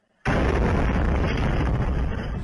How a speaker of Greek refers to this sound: Χτυπήματα μέσα στη νύχτα συνταράσσουν την Οδυσσό. Οι Ουκρανικέ αρχέ κατηγορούν ότι οι Ρώσοι εξαπέλυσαν επίθεση με Ιρανική κατασκευή ντρόουν κατά ενεργειακών υποδομών.